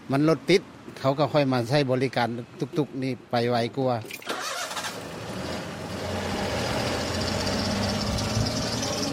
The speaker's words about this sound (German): Ich steige in sein Tuk-Tuk. Wir beide spüren den Fahrtwind.